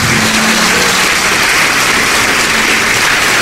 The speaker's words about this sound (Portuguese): Todos que ergueram as mãos, saiam dos seus lugares e venham comigo aqui na frente e vamos aplaudir o Senhor Jesus por cada vida que está chegando.